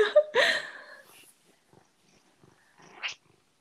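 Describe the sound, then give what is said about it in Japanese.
A cat purrs close to the microphone, with brief chirping vocal bursts at the start and near the end and softer rhythmic rumbling in between. No one speaks. “ちょっと猫が近い”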